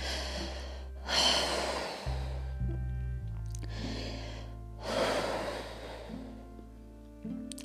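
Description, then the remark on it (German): Two slow, deep breaths, each a long airy inhale followed by a drawn-out exhale, clear over a low steady hum, with no talking. “Der erste Punkt ist kurz zu atmen, also einfach atmen, sich äh, auf die Gegenwart zu beziehen und zu sagen, okay,”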